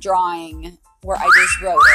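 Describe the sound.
A short electronic phone text-message notification chime, two quick rising chirps, sounds clearly over a person talking.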